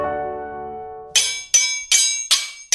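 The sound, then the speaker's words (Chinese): Swords being brandished clash in a quick series of about five bright, ringing metallic strikes, evenly spaced, each decaying briefly, after a low steady humming tone at the start. No voices. “哦，这是挥舞着刀剑的声音。”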